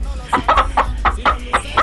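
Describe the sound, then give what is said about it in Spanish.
A hen clucks in a quick, steady series of about seven short, throaty pulses, fairly loud, with a low background rumble and no talking. “Hoy amaneció poniendo todos los huevos revueltos, don Mauricio.”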